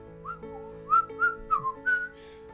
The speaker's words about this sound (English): walking up to Fimbria whistling a little tune.